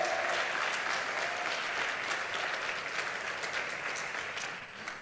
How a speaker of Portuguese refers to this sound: Se você crer, dê um aplauso bem forte ao Messias. Aplauda mais forte a Ele, é para você.